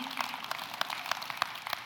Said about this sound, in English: Y'all can clap right now if you want to. You can say amen if you want to. Even if you don't want to, you ought to.